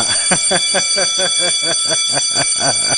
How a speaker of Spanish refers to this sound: Así que toca la campana y no te rías